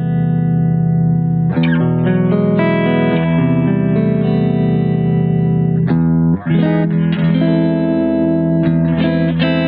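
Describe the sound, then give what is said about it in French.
A sample of a clean electric guitar tone through an amp plays sustained, ringing chords with rich harmonics, changing shapes every second or two at a steady loud level, with no talking. “Donc là, c'est le clair.”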